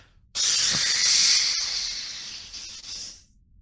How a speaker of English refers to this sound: And you can hear its breath which sounds like deep hissing from within its chest as